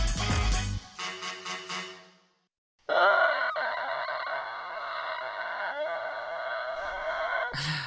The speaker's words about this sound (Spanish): Uy, la puerta que se te abre.